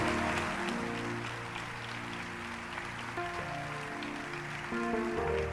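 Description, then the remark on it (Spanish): A church audience applauds the Lord steadily and loudly, a dense continuous clatter of clapping, with sustained keyboard chords playing underneath throughout. “Dale fuerte ese aplauso de veras al Señor esta noche.”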